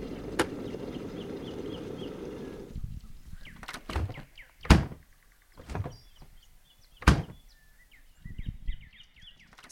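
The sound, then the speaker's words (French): A refrigerator door opens with a low hum that cuts out, followed by several sharp clunks and knocks as food is taken out, while faint birds chirp in the background. “Ça, c'est le bruit du frigo qu'on ouvre euh, de très très nombreuses fois par jour.”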